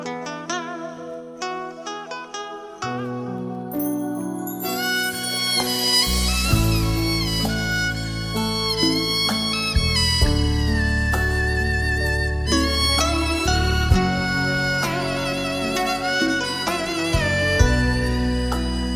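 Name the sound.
song intro music playing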